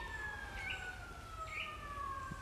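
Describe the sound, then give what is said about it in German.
Police car sirens wail steadily as they approach, with a sustained, slightly falling tone over a low rumble, with no voices. “Polizeiautos”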